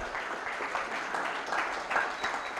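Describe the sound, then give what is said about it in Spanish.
A church audience applauds steadily to give thanks to Jesus, a dense wash of many hands clapping at once that holds at a moderate level for a few seconds. “Dale un aplauso, dile gracias Señor.”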